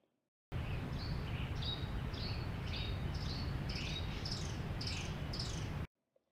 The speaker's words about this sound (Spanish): ¿Dónde te imaginas que estamos al escuchar estos sonidos con sus distintos timbres? Muy bien. Este paisaje sonoro es un bosque.